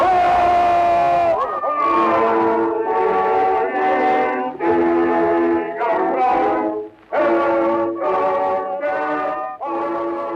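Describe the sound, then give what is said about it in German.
A large crowd in Berlin cheers Kaiser Wilhelm II, shouting "Hurra" in repeated loud, rhythmic bursts, voices blending into a roaring chant with short gaps between each wave, on an old, slightly muffled historical recording. “Hier jubeln die Menschen in Berlin Kaiser Wilhelm II. zu.”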